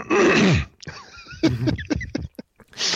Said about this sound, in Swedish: nu trycker vi på paus. Nu, nu blir det harklingspaus.